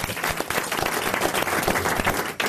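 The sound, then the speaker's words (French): Steady applause from an audience for impressionist Marc-Antoine Lebré, a dense wash of many hands clapping at an even, sustained loudness, dipping briefly near the end before resuming. “Vous pouvez applaudir Marc-Antoine Lebré, évidemment, grâce à qui on doit toutes ces voix.”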